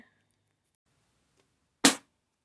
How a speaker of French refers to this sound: Quand tout à coup, un livre tomba de l'étagère.